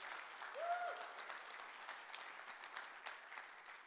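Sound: audience applauding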